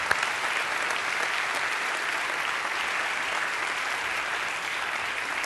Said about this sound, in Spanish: Ayúdenme a darles un gran aplauso y gracias a ustedes. Muchas gracias.